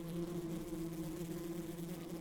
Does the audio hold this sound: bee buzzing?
yes